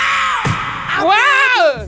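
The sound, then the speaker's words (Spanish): A person imitates a singer's signature opening scream: a short vocal burst, then a loud, drawn-out cry that rises and falls in pitch, lasting under a second. “Una de las canciones más recordadas por el grito inicial”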